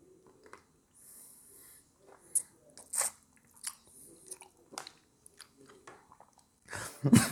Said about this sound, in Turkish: Bir de çekirdeğini dışarı çıkardığım, elime aldığım üzüm sesi yapalım.